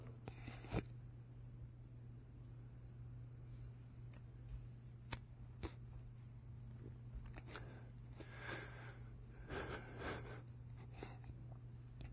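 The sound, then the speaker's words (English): A pastor cries quietly, with irregular sniffles and sharp gasping breaths over about twelve seconds, no talking, against a steady low background hum. “I wasn't going to cry.”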